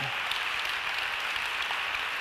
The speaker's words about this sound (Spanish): Si lo puedes creer, dale el aplauso al Señor.